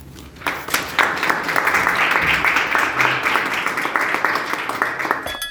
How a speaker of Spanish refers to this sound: Un aplauso.